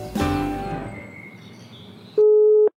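A steady, mid-pitched telephone tone sounds once for about half a second, loud and clean, following a fading harmonic musical chord with a faint high whine.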